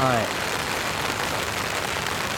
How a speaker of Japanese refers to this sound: 雨がたくさん降っております雨はひどいいや大変過酷な状況での収録となっておりますけれども